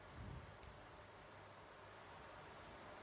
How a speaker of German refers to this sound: genießt noch das atmosphärische Rauschen des Ventilators.